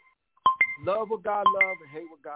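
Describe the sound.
A timer beeps in two quick double pulses, sharp and high-pitched, cutting through a person speaking steadily over them.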